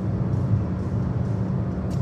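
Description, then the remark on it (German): Steady low rumble of a car driving through Germany's longest motorway construction site. A continuous droning engine and road noise hold an even loudness throughout, with a faint brief hiss near the end and no talking. “Hallo, wir durchfahren gerade Deutschlands längste Autobahnbaustelle.”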